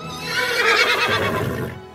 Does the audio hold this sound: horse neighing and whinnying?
yes